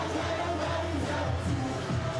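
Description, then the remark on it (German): A dense, steady roar of a large outdoor carnival crowd in costume lining the street at a parade, many voices blending into continuous festive cheering and chatter with no single speaker standing out. “Ja, das Narrenvolk jubelt und hat sich ordentlich herausgeputzt.”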